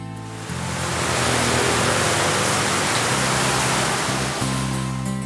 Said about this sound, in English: wheels in the rain.